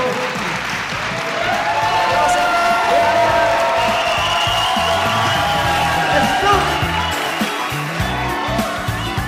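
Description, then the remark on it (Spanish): A crowd applauds steadily for the full stretch, dense clapping mixed with cheers, whoops and shouting voices, loud and sustained without a break. “Que se escuche el aplauso de la gente.”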